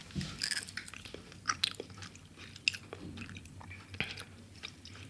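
Steady, close-miked chewing of dried fruit: repeated sticky, crackly bites and soft squishy mastication in an uneven rhythm, with occasional sharper crunchy clicks and no talking.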